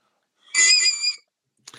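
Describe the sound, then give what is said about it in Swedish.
A shrill, strained squeal from a saxophone, caused by biting the reed with the teeth, held for about two thirds of a second with a wavering, harmonic-rich pitch, followed after a short pause by a faint, brief scrape. “och om man då har tänderna mot det här rörbladet, biter i röret, då får man istället för ett sånt där till en saxofon så man får vanliga toner så mm.”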